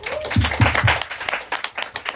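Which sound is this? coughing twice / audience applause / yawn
audience applause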